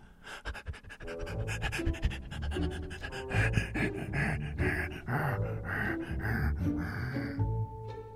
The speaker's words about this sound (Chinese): 门外，大黑狗俯下身子，呼哧呼哧冲着点点喘着粗气。